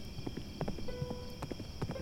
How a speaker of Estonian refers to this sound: kuulis kabjamüdinat